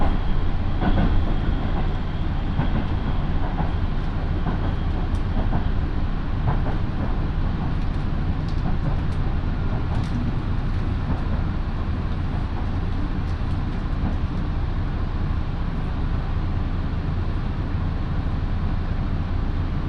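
A one-man local train on the Minobu Line in Japan, running from Shibakawa to Minobu and bound for Kofu, rumbles steadily along the rails, with a continuous low droning hum, faint clicks and rattles from the carriage, and occasional higher squeals; no one speaks.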